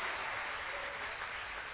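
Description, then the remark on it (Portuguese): An audience applauding for the Lord during a church sermon: a dense, steady wash of many hands clapping together, bright and hissy, holding an even level for the whole stretch with no voices standing out. “Se é para o Senhor, aplauda mais forte, querido.”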